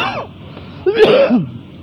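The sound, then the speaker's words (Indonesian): A short burst of throat clearing and coughing from a person with a cough, fairly loud: a brief raspy catch, a pause, then a harsher guttural clearing that trails off, with no talking. “halo halo maaf teman-teman saya sedikit gangguan batuk”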